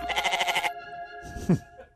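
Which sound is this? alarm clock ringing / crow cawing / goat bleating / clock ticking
goat bleating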